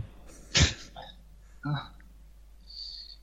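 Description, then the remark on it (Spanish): Two coughs about a second apart; the first is a louder, sharper burst and the second is slightly softer, with quiet background afterward. “Qué interesante, dos toses.”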